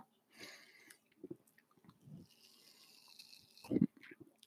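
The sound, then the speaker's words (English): Wet mouth sounds after a sip of a carbonated drink, with a steady crackling hiss of the drink fizzing in the mouth, broken by smacks and one louder gulping burst near the end. “Oh, that was the fizz in my mouth. That was disgusting.”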